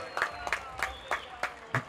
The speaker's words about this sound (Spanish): Aquí estamos, un aplauso, Corillo. Viene la gente aquí. Vamos, vamos, vamos.